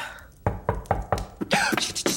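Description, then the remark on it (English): Four quick, evenly spaced, solid knocks on a door, followed by a short burst of busier, muffled sound as the knocking trails off. “Did you hear that? I think it's the door. I don't think doors can knock themselves”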